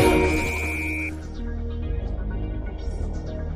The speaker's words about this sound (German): Ist ja dumm, dass dieses Verkehrsbett nur vier Minuten ist. Das geht nämlich jetzt zu Ende.